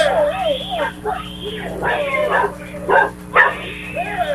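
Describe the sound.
A dog coming out of a neighbor's house barks and yelps in several short, sharp bursts, loud, with people's voices talking in the background between and under the barks.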